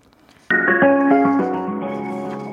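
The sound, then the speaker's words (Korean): A melodic telephone ringback tone begins abruptly as the radio show Jung Eun-ji's Gayo Gwangjang phones its first caller: a short run of bright, stepped electronic notes that rings out and lingers, loud, with no one speaking. “어, 통신사 어딘지 알 것 같고요.”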